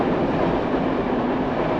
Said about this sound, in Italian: sembrare che il treno entri in casa